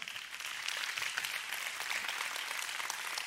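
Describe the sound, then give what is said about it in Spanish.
A church audience applauds the worship band steadily, a dense wash of many hands clapping at once, sustained, with no voices standing out above it. “Celebra conmigo su presencia, celebra al grupo de alabanza.”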